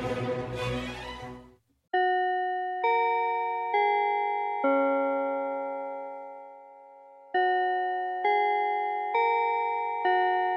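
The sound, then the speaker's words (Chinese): A brief noisy rush gives way to a clear bell chime: eight ringing notes of changing pitch, four then a long lingering tone, then four more, each struck crisply and decaying smoothly. “钟声过后，准备开始今天的科技早自习喽。”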